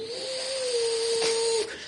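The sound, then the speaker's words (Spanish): A voice makes a steady, sustained whirring hum for about two seconds, holding one pitch with a breathy hiss layered on top, imitating a blender switched on to mix fruit compote with three spoonfuls of sugar. “Y, lo ponía en la licuadora, como tres, tres, ponía tres, así, y, le echaba azúcar, tres, tres cucharadas, así, y prendía el licuadora”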